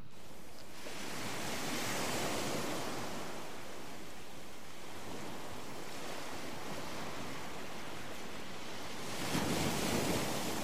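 Ocean waves wash steadily onto a beach, a broad hissing roar that swells around two seconds, eases through the middle and surges again near the end, with no voices.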